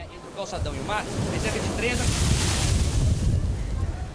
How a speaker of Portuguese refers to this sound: E as ondas não perdoam ninguém. Quando eu me preparava para gravar, olha o que aconteceu.